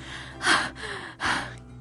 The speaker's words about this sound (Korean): 근데 숨소리가 왜 그래요? 늦어서 출근하고 있었어요.